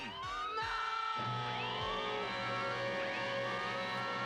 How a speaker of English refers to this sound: The Decepticons must be alerted! Dad! Dad, don't! must sound alarm!